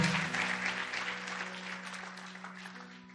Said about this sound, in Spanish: Dale un aplauso al Señor, ponte en pie.